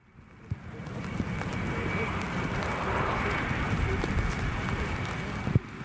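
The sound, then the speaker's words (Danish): A steady, broad roar of two F-16 fighter jets passing overhead, escorting a large grey US Air Force transport plane heading for the runway at Rønne Airport, Bornholm, Denmark, during a military exercise; it swells and holds across the whole stretch, with faint scattered knocks and indistinct voices in the background. “Det, I kan høre nu, det er de to F-16-fly, der eskorterer det store amerikanske transportfly, som har sat kursen mod landingsbanen her i Rønne Lufthavn.”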